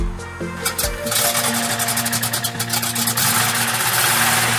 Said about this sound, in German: Also es ist so, ich höre den Motor wahnsinnig gern. Das ist wie Musik in der. Ja, ich mag das ganz einfach. Ich höre es gern.